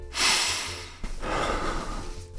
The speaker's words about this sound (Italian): La sentite l'aria che entra nel naso? È fresca, ci riempie i polmoni.